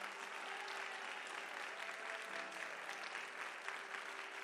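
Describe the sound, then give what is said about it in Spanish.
A church audience applauds in celebration, a dense, continuous wash of clapping hands that holds at an even level throughout, with no voices standing out above it. “¿Podría sostener ese aplauso para celebrar?”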